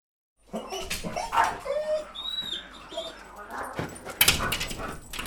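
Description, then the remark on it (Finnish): A frightened grey Australian Cattle Dog sitting on the floor whines and whimpers, letting out a string of thin, high-pitched cries broken by breathy, uneasy sounds, with a brief sharper burst near the end. “Harmaa Australian karjakoira on peloissaan. Se istuu lattialla, vinkuu ja tuijottaa massiivista tammiovea.”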